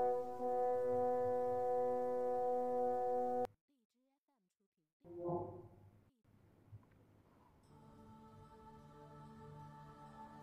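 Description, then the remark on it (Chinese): The bell of Hanshan Temple rings with a deep, sustained hum of steady overtones that cuts off, followed by a short pause, a brief knock, and a quieter lingering ring. “寒山寺的钟声，余音袅袅，舒展双翼，穿越时空，飞越红尘。”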